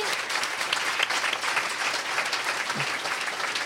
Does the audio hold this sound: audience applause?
yes